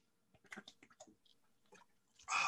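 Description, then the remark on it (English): A few quiet sips of water, a run of short wet slurping and swallowing noises in an irregular rhythm, ending in a sudden loud, breathy exhale. “a little water lube the pipes.”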